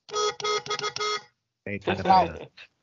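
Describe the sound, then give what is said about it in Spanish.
Four short, evenly spaced car horn honks from a car at the entrance of a children's play park sound in quick succession, fairly loud, followed after a brief pause by a person speaking. “para que la gente sepa que está en el Soriano Car, dale al pito o algo”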